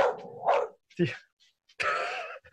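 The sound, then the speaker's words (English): A small dog barks furiously in three sharp, high-pitched bursts, the last one drawn out into a strained, yappy howl, loud with brief silences between. “very furious little dog.”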